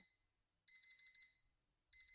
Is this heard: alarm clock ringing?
yes